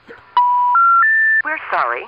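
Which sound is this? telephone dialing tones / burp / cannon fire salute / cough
telephone dialing tones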